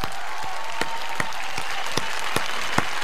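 Applause: a dense, steady wash of clapping with about eight sharper, evenly spaced claps standing out in a regular rhythm, with no voices.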